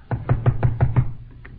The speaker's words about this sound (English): Go ahead and knock.